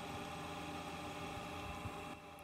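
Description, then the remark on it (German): A car's electric motor runs with a steady, humming whine full of layered tones as a black, gas-pedal-shaped lever on a table is pressed down, holding even for about two seconds before easing off slightly at the end. There is no talking. “Das ist ein natürliches Geräusch, aufgrund der Gegebenheiten des, des Motors.”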